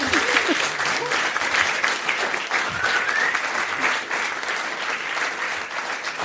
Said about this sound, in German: Das ist euer Applaus. Vielen Dank.